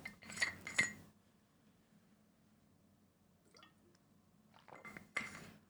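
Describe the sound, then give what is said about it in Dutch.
Someone takes a sip of water: a glass clinks and knocks, a quiet pause with a faint swallow, then more clinking as the glass is set back down. “Na een slokje water.”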